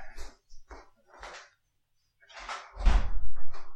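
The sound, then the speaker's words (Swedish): Knocking on a door as a visitor, a former editor, arrives: three lighter raps spaced apart, a short pause, then two heavier, louder thuds echoing. No one speaks. “Nu knackar det på dörren.”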